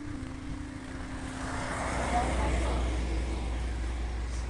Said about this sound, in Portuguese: E ele deve estar a andar só 10 km, 5 km a hora até, a 3 vou dizer. Deve estar com a primeira mudança, é um trator, eu não tenho.